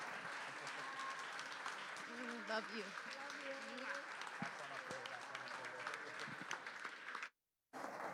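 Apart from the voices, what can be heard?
audience applause and cheering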